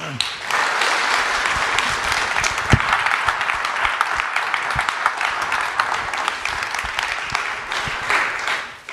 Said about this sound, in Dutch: dames en heren, graag een applaus.